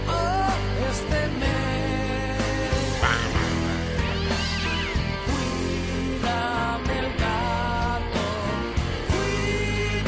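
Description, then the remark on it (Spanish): Cat meows ring out repeatedly over a loud, busy musical backing, their wavering cries woven through a playful, comic-sounding song from start to finish. “qué maravilla como cantan los gatos. Escuchad lo que cantan los gandules a los gatos.”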